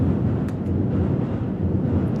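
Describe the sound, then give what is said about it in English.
A train in Japan passes by with a loud, steady low rumble and roar that fills the whole moment, with faint rattling on top and no voices. “This is Japanese train sounds.”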